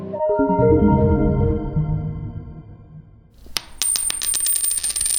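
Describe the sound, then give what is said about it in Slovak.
A coin drops onto a hard floor, ringing with a bright metallic tone, then bounces and rattles in a quick series of sharp clinks as it settles. No voices. “Tento zvuk dobre poznáte, keď vám padne na zem minca.”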